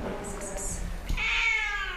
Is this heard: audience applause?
no